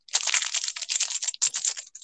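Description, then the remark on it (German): Steady crinkling of the paper wrapper of a small ice-ball sweet (Eisbällchen), a dense stream of small crackles with a brief pause midway, with no voices. “Äh, ich habe hier äh, Papier von einem, von einem, ähm, von so einem Eisbällchen.”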